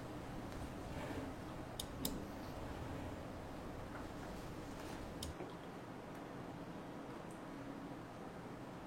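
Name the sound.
computer mouse clicking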